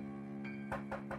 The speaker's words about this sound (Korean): 창문을 두드리는 소리가 들려왔다. 창문을 열어보니 웬 아저씨가 서 있었다.